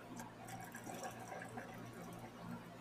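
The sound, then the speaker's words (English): Squirt soda pouring steadily into a glass with ice for a cocktail, a soft, continuous splash with a faint fizzy crackle throughout. It's fairly quiet, with no voices. “And that, that would right. be the squirt being poured in.”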